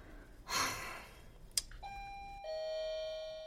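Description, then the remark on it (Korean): A doorbell rings a two-note ding-dong chime, a bright higher tone followed by a lower one that rings out and sustains. A breathy rush of noise and a sharp click come just before. “어, 마트에서 배달 왔나 보다.”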